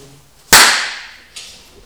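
A single sharp hand clap, made at the start of a recording for syncing, cracks out of near silence and rings away briefly, followed about a second later by a much fainter second snap.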